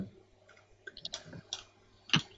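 A few quick, crisp mouse clicks at an irregular pace, fairly quiet, with a sharper, louder click near the end, as someone clicks through to the reader comments on an article. No one speaks.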